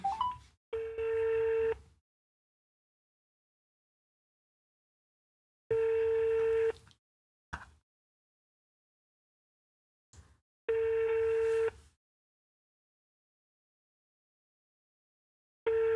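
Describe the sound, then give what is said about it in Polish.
A phone call to an expert ringing: three steady, buzzy ringback tones about a second long each, separated by long silent gaps, with a few short clicks and blips around them. No one speaks. “Dzwonimy do eksperta.”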